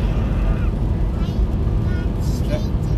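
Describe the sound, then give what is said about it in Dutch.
A car engine revving steadily from inside the vehicle while driving on the N322 road, a constant low droning rumble with road noise that holds even throughout, with faint voices talking over it. “Nee, de motor maakt toeren.”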